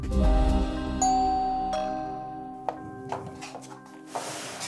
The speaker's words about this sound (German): Dann klingelt sie bei Elisabeth Dürr.